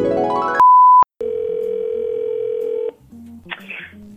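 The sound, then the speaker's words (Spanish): A loud, short high beep gives way to a steady telephone dial tone that hums for about two seconds, then drops to quieter low tones and a brief crackly burst, as in the John Cena prank phone call videos. “¿Recuerdan esos videos de, de, que llaman por teléfono?”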